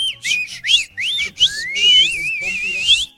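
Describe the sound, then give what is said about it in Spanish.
A shrill human whistle in quick repeated bursts, sliding up and down in pitch, then a longer sustained warbling tone, loud with no talking over it. “Y el chiflidito para todos los inútiles de parte del celayense.”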